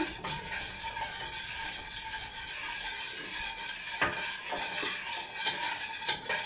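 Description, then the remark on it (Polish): A spoon stirs jelly powder into water in a pot, gathering powder from the pot's edges, producing a steady scraping, swishing sound with occasional light clinks against the sides. Moderately loud, with no voices. “Mieszamy, zbierając z brzegów, też proszek z brzegów garnka drobny osiad w trakcie mieszania.”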